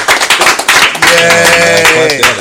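A crowd claps for keynote speaker David Banner in quick, dense bursts, then joins in with loud cheering and whooping voices over continued applause, the whole burst lasting a couple of seconds.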